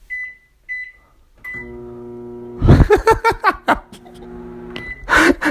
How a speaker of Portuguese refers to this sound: Nesse momento, Jair ligava o micro-ondas